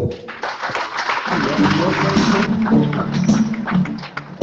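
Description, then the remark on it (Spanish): An audience at an awards ceremony for the best students of each degree programme at the Universidad Nacional Agraria breaks into dense, steady applause, a broad crackling wash of many hands clapping together, with some murmuring voices mixed underneath before it thins out near the end. “Un aplauso para los”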